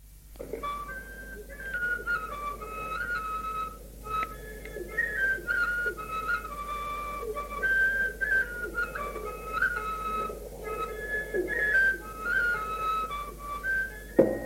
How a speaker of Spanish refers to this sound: el tamboritero de, de Santiago de Peñalba, pues otro ejemplo de baile suelto, como las boleras, pues en este caso una ronzaina.